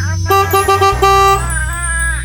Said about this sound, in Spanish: Te está apretando el claxon y yo no lo estoy apretando, güey. Sí, te está apretando el claxon.